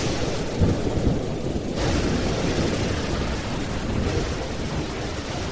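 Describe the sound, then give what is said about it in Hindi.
A loud, steady thunderstorm with strong wind: heavy rain pours continuously while deep rolling thunder rumbles low underneath, with a brief swell of brighter hiss early on. No voices. “तभी बहुत तेज आंधी तूफान शुरू हो जाता है साथ में जोरदार बारिश भी”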